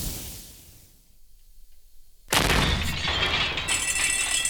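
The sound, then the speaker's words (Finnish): After a quiet, hollow stretch, a sudden loud blast erupts and keeps roaring with crackling, debris-like noise and a bright hiss, like an explosion that does not die away. “Nyt sieltä kuuluu räjähdys.”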